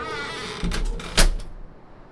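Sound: door closing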